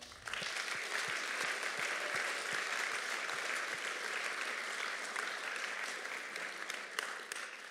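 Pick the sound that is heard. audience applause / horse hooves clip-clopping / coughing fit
audience applause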